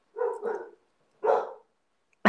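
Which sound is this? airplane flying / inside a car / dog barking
dog barking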